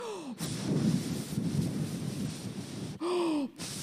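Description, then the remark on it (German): Several people blow and whoosh together to imitate the rising wind in a story of the disciples sailing and rowing a boat, a loud breathy rush that swells and wavers for about three seconds, with a brief rising-falling tonal whistle at the start and near the end. “Macht mal den Wind, pustet mal so mit.”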